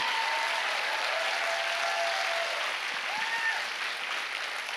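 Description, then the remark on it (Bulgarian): Steady applause from a crowd during a sermon fills the whole clip, a dense continuous patter of many hands clapping at an even loudness, with a faint tonal whine faintly audible beneath it. “с това ръкопляскане само ми вземате време от проповедта.”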